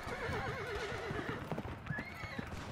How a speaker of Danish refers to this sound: Sårede heste løber vildt i gaderne, og der ligger hestelig i brøndene, på lofterne og i husene.